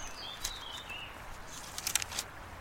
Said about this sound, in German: Steht geschrieben, jetzt muss ich gerade auch selber blättern.